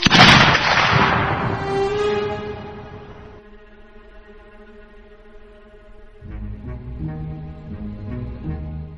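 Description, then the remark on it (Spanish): A single loud shot from a large pistol, fired at night in a duel in Toledo, cracks at the start and rolls off in a long echoing decay, followed by sustained tonal music that swells again near the end. “Fue entonces cuando su segundo adversario fue a atacarlo por la espalda, y en ese preciso instante, el canalla alzó la zurda, blandiendo una enorme pistola que despachó un tiro a aquel asesino.”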